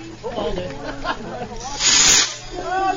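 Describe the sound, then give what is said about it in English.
A firework hisses and sprays sparks in a loud, bright rush lasting about half a second, surrounded by excited voices talking before and after the burst. “Slapstick of the day is a firework guy who lit the fucking entire block on fire, almost killed his family, and blew up the car.”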